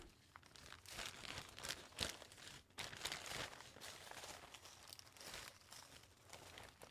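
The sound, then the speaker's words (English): A big Twitch plastic bag crinkles and rustles continuously as it is handled, with bursts of sharper crackling scattered through the noisy, uneven texture. “This is just a big twitch plastic bag.”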